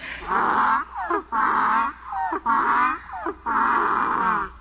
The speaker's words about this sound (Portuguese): O jegue estava no portão, quis me pegar. Quando me viu, foi murchando as orelhas, mostrando o dente e começou a relinchar.